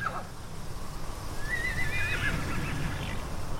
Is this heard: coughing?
no